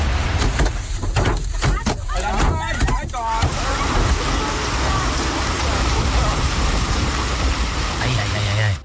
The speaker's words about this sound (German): Schon krass, wenn du irgendwie faustgroße Hagelkörner in ja. deine Windschutzscheibe schlagen hast, ne? während du Auto fährst, da wird einem schon ein bisschen anders.